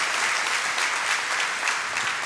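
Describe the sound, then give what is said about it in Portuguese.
Steady applause from an audience giving praise to the Lord, many hands clapping in a dense, continuous patter at an even loudness throughout, with no voices speaking over it. “Dá uma salva de palmas ao Senhor aí.”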